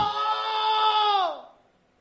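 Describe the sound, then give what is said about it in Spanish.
A man imitates the bitter, terrified scream of the biblical Esau: one long, strained, sustained cry held for over a second, then sliding downward in pitch as it fades out. It is loud and alone. “O sea, hermano, lanzó un grito aterrador lleno de amargura.”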